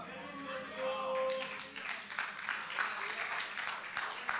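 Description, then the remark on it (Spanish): An audience claps steadily for God, a dense crackle of many hands filling the space at moderate volume, with a brief tonal voice or whistle rising early on. “Si ese aplauso es para mí, está bueno, pero si es para Dios, tiene artritis, déselo con fuerza, por favor.”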